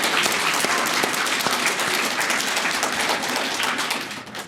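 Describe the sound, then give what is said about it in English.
A crowd applauds steadily, dense overlapping claps at full volume for several seconds before beginning to taper off at the end. “Big round of applause to Caleb Maupin and the Center for Political Innovation for putting this on.”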